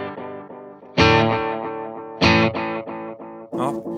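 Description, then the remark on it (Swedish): An electric guitar played through an effects pedal with its Tape Age control set to minimum, with strong, loud strummed chords carrying a wobbly, warbling modulation and a slightly distorted edge, ringing out alone with no talking. “Nu är den på minst ja. Ja, den är lite... Den är lite... Wobbligare.”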